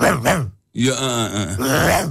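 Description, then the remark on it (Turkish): A person imitates a dog with their voice, giving two short yelping barks followed by a longer, drawn-out growling whine, fairly loud. “Muazzam köpek sesi yapıyor adam ya.”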